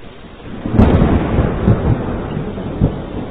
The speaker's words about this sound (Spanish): como llueve.